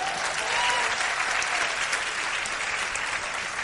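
An audience applauds steadily throughout, a dense, even wash of many hands clapping at a constant moderate loudness with no pauses and no talking over it.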